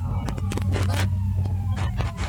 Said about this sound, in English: So as we hear an ambulance going by. Your ambulances. Straight up on a disaster movie. That's exactly what that is. That's definitely from a disaster movie.